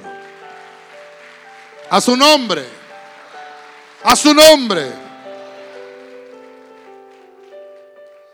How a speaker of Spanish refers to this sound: Dele palmas al Señor.